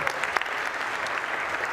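Steady applause from a large church gathering welcoming a morning preacher fills the space, a dense wash of many hands clapping at once with no pauses, heard from within the crowd at moderate loudness.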